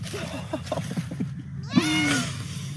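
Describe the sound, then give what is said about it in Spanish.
A single drawn-out meow from a golden cat with blue eyes rings out near the end, following a stretch of indistinct voices and background chatter. “Uy, mi gato.”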